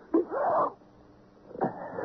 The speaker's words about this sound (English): Gesundheit.